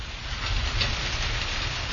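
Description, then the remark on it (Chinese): Steady rain, with wind and thunder, pours down in a dense, even hiss, with a low rumbling undertone running beneath it for the whole two seconds and no voices. “听听雨声、风声和雷声，这是大自然对我们的馈赠。”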